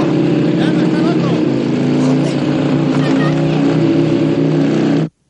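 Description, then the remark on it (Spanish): A car engine roars steadily at full speed as the car drives along a sidewalk, a loud, constant low drone with a slight rising strain, holding for about five seconds before cutting off abruptly. Faint voices sound underneath. “a toda velocidad, circula por la acera.”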